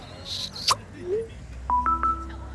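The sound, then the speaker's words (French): A short electronic phone text message alert plays as a message arrives: a quick run of clear, steady beeping tones near the end, preceded by a few soft swishes and a brief rising chirp, moderately loud. “Ah, message de Leila.”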